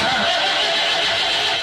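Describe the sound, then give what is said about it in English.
A loud, harsh car engine noise grinds and rasps continuously for under two seconds, sounding strained and unhealthy, with no voices over it. “So if your car sounds like this”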